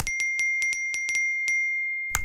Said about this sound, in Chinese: 不怕啦，我从早上手机都没有停过，我关掉静音给你听听。